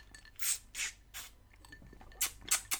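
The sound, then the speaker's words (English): Icy water being sipped through a plastic straw: about six short, hissy slurping bursts in an uneven rhythm, with quiet pauses between them and no talking. “That's a uh, that's a straw. That's a plastic straw.”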